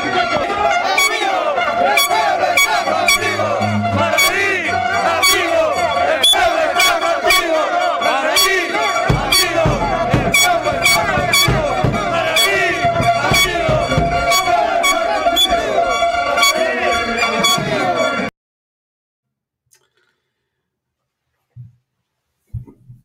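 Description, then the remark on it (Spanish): A loud, dense crowd of protesters chanting and shouting together, with sharp horn blasts cutting through the roar, before the noise stops abruptly and only a couple of faint thumps remain. “yo no les llamaría filoterroristas ni comunistas a los que están protestando”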